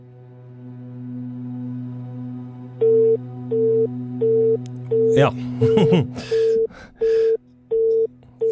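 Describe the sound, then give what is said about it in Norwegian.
A phone call fails to connect: a steady line hum gives way to a regular series of short, evenly spaced electronic beeps, fairly loud, while someone briefly speaks and laughs midway. “Da ringer jeg.”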